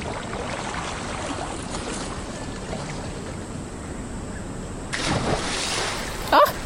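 Steady rushing water of a waterfall on the Mambare River system fills the background, then a sudden surge of churning spray near the end and a brief, loud splash as a person drops heavily down the falls into the water.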